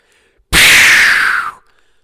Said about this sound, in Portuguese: Bombinha de fumo.